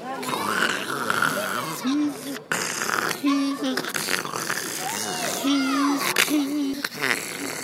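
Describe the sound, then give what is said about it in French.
A voice imitates motorcycles backfiring in the street, making a rapid run of sputtering, popping bursts with buzzy vocal tones that continue unbroken for several seconds. “Alors, un bruit qui me dérange ce sont les motos qui pétaradent dans la rue.”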